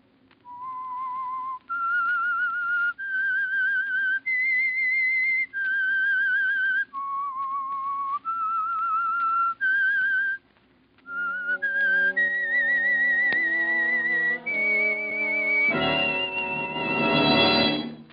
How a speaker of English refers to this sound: The Signal Oil Program, The Whistler. That whistle is your signal for the Signal Oil program, The Whistler.